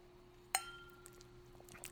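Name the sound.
glasses clinking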